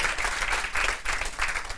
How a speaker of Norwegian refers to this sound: Toril Sivertsen. Klapp litt for Toril.